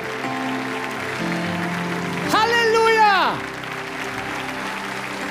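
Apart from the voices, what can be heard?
audience applauding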